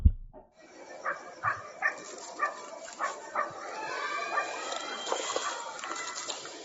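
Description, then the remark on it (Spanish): A dog barks about seven times in the background in a steady, evenly spaced run, before the barks thin out into a busier, continuous background din. “Dice, solo se oía un perro de fondo.”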